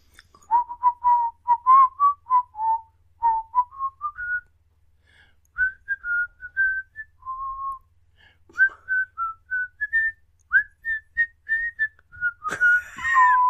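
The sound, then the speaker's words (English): The theme tune of the TV show Cheers whistled solo: a clear, mid-high melody of quick notes and a few held tones, in phrases separated by short pauses, closing with a brief noisy burst. “Oh, cheers. Yes. Would not have picked it though.”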